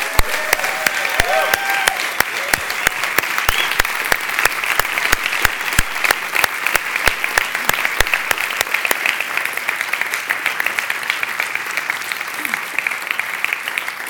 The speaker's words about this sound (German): Wir machen einen wunderbaren Applaus für dich, der dich jetzt begleitet, zu dem Kinderkirchenteam und den Kindern draußen.